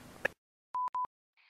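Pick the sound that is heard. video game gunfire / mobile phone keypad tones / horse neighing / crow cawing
mobile phone keypad tones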